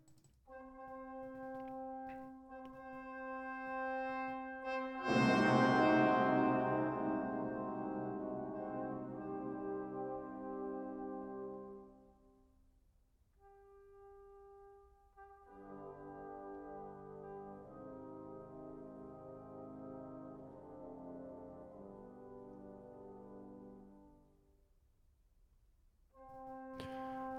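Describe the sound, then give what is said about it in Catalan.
Slow, sustained orchestral music, the prelude to the first act of an opera, playing in the background, with long held tones swelling to a loud, full chord around five seconds, then fading into quieter, darker sustained passages before rising again at the end. “preludi del primer acte que estem sentint de fons ja ens porta aquest ambient de desgràcia i de tragèdia de l'obra.”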